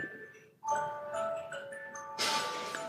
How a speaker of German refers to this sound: Es klingelt irgendein Handy. Das war erstmal das Klingeln. Oder eine Spieluhr.